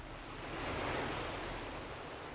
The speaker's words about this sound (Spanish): Imagina que estás sentada al borde de un acantilado frente al mar. Sientes el rugido de las olas chocando contra las rocas.